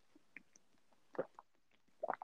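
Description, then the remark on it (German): Quiet sounds of someone drinking orange juice: a few soft sips and wet swallowing gulps, spaced irregularly, with the last pair of gulps louder. No one speaks. “Warte, ich, ich muss kurz Osaf trinken.”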